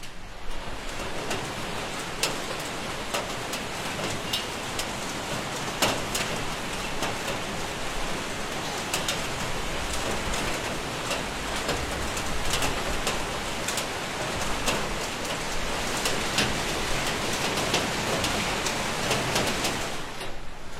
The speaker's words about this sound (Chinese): 让大家再听一听这美妙的雨声